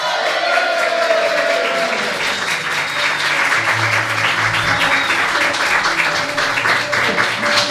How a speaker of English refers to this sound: So, without further ado, please, big, big cheer for your dungeon master,